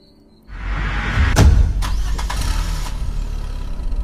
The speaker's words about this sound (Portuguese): Já é dia e agora é o som do comboio dos saqueadores em movimento que o acorda.